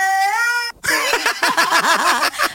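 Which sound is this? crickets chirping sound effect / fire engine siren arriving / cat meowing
cat meowing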